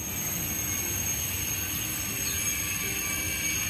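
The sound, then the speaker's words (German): A high-speed train pulls out of a station after a short stop, with a steady rumble and broad rushing hiss that holds even throughout, with a faint metallic whine riding above; no voices. The station lies about equally far from Metz and Nancy. “Ein kurzer Stopp, dann fährt der Schnellzug weiter.”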